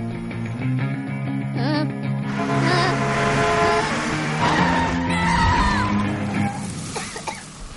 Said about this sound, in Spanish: El coche ha frenado a pocos centímetros de su cara. El polvo rodea al automóvil, una ranchera familiar con la vaca llena de trastos.